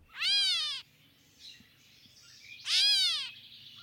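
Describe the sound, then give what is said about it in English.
Two loud, nasal, cat-like mewing calls from a gray catbird, each about half a second long and separated by a pause of roughly two seconds, with faint softer chatter between them. “The gray catbird. Small, monochromatic, and loud, these birds are described by Cornell Labs as timid and asocial.”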